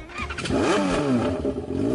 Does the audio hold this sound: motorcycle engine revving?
yes